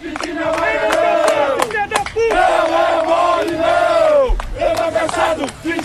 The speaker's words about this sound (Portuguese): Com, com cânticos cobrando jogadores, Torcedor cobrando. Com cânticos.